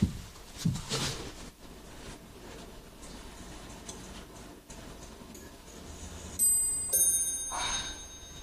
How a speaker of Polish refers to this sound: To zegar. Jeśli chodzi, musiała go wczoraj nakręcić. Niekoniecznie. Stare zegary nakręca się raz na tydzień.